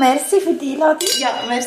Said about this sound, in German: Anstoßen müssen wir auch noch.